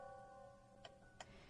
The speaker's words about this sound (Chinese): 只能听到钟表的滴答声。